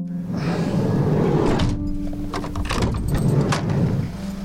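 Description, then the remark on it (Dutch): A plastic bag holding four nearly out-of-date frozen meals tossed onto the floor of a police van, giving a few dull thumps and crinkly rustles over a steady low engine rumble. “wat gooide je nou op de grond?”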